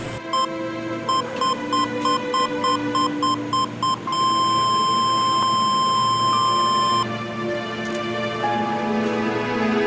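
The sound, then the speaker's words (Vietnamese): A vital-signs patient monitor's steady run of short, high electronic beeps gives way to one continuous flatline tone lasting about three seconds as the ECG trace goes flat, in a hospital ward with patients in surrounding beds, over a low background hum, then stops. “Âm thanh là một tiếng tút dài khiến các bệnh nhân ở giường xung quanh phải chú ý.”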